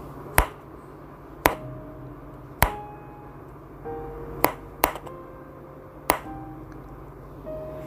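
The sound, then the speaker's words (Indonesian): Six sharp knocks on what sounds like an iron door, unevenly spaced, each hit leaving a brief metallic ring against a quiet background hum, with no voices. “terus tuh ketokannya tuh semakin kayak gini bunyinya ya.”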